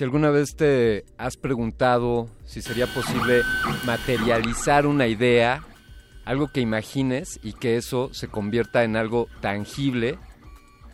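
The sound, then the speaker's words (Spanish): A 3D printer whirs in the background as it fabricates an object, with steady, high-pitched motor whines that swell loudest midway, while a man speaks continuously over it. “Sonido, sonido que estás escuchando de fondo de una impresora 3D fabricando, construyendo o materializando una idea.”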